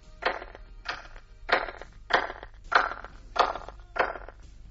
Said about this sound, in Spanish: Si viéramos esas mismas palmas en el lado derecho del anillo de piedras exterior de Stonehenge, escucharíamos esto